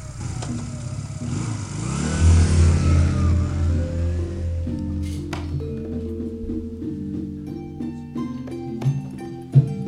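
A motorcycle engine cranks and starts, then revs loudly with rising and falling pitch before settling into a rough, throbbing idle with a few sharp bursts of throttle.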